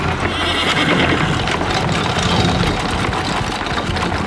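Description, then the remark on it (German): Horses snort over the steady rhythmic rumble of carriage wheels as the horse-drawn carriage races at a gallop through city streets, a loud, dense and continuous clatter that fills the whole stretch with no one speaking. “Das Schnauben der Pferde vermischte sich mit dem rhythmischen Rotieren der Räder”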